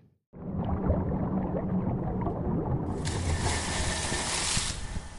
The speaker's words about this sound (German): Das ist äh, das Gluckern unter Wasser, so wie ich mir jedenfalls vorstelle, wie an diesem 26. September vor einem Jahr die mutmaßlich Taucher, die da wohl runtergetaucht sind, sich gefühlt haben